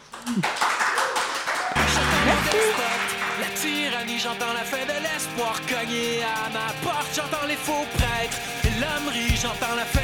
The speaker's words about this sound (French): Et oui, j'invite euh, le, le, petit public de bénévoles et d'équipes techniques à applaudir quand même.